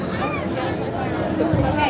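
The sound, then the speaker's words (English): Steady murmur of many overlapping voices, a continuous crowd babble at the Epcot theme park with no single voice standing out, holding an even level throughout with a slight swell near the end. “Crowds aren't too terribly bad here today.”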